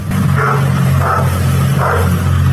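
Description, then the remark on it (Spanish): A dog lets out three short, whiny barks spaced about a second apart, heard over a steady low rumbling hum with no one speaking. “estaba quejando el perro también.”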